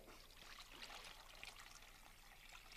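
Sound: water being poured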